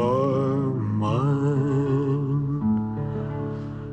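A recorded pop song plays at a steady, fairly loud level, with a sustained, smoothly gliding sung vocal over soft backing instruments and no one talking over it.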